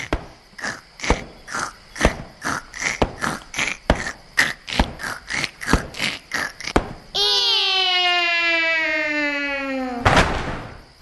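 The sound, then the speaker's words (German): Two people fell a tree, one chopping a notch into the trunk while the other saws from the opposite side: a steady run of rhythmic saw strokes cuts into wood, then a long, drawn-out creak as the tree leans, ending in a sudden loud crash as it falls. “Sie schlugen und sägten so lange, bis der Baum mit einem lauten Krach umfiel.”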